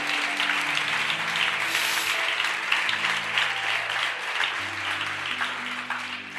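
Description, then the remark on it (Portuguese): Sustained applause for Jesus from a crowd, a dense steady patter of clapping lasting several seconds, with a low sustained musical tone humming underneath throughout. “Se você crê, dê uma salva de palmas a Jesus por isso.”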